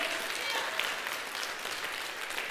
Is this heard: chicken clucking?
no